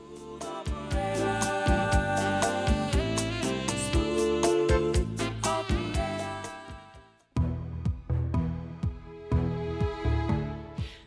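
A smooth soul-pop song plays at full volume with a steady beat and rich sustained chords, briefly dropping out around the middle before the groove picks back up.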